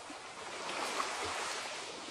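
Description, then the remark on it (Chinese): Ocean waves wash onto a beach of fine, soft sand lined with tall coconut palms, under blue sky and gentle sunshine, in a steady, soft hiss that swells slightly in the middle and then settles back, with no voices present. “你静静地躺在海滩上，周围没有任何其他人，只有你自己。”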